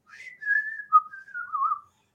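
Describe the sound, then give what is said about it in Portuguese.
A person whistles a short melodic phrase, a few sustained notes sliding gently down in pitch, clear and moderately loud with no talking over it. “Não, mas é porque assim, eu, eu assubi o básico, né?”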